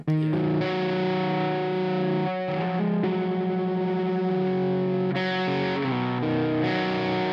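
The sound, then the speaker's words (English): Distorted electric guitar chords played through a somewhat dirty amp ring out, each sustained and changing every second or so, with a thick, heavy low-mid body dominating the tone. No voices accompany the playing. “Like there's a little too much low mid in there right now, which means I would probably like pull that out of the amp and pull the bass back out of the amp.”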